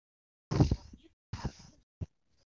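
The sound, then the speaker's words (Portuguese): A voice imitates a gas station inflatable tube man flailing in the wind, with two breathy, sputtering blasts and then one short pop, fairly loud. “Não, é, o, é porque é o barulho lá do vento, tá ligado?”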